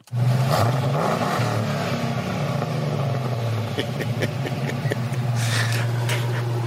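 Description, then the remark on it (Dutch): A deep V8 engine of a modified Land Rover Defender, converted into a racing car by Top Hat of Loosdrecht, rumbles loudly, revving with a rising and falling throaty growl that stays strong and continuous throughout. “En eh, dat bedrijf bouwt Land Rover Defenders om tot racemonsters met dikke V8 motor.”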